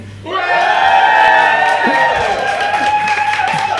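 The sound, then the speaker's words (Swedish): An audience erupts in loud, sustained cheering and shouting to vote for medieval clothes, many voices yelling together at full volume for several seconds, energetic. “och då gör ni jättemycket ljud om ni hejar på det som jag skrek.”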